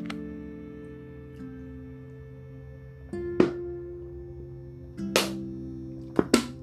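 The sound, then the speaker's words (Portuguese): A handful of sharp clunks and crinkles as a plastic water bottle is picked up from a bedside table and handled, in separate bursts over a steady low electrical hum. No one speaks. “Minha garrafinha tava do outro lado do mudo, do criado mudo.”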